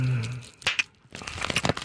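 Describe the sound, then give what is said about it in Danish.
Bubble wrap being popped: a couple of sharp snaps, then a dense flurry of crackling pops and plastic crinkling, with a brief hummed voice at the start. “Så prøv at poppe nogle af dine, mens du spiser chokolade.”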